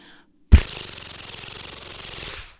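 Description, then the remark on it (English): A voice imitates a comic book page turning: an abrupt breathy burst that settles into a steady rustling hiss lasting about two seconds, then cuts off. No other sounds accompany it. “you shall never do the page turn noise again.”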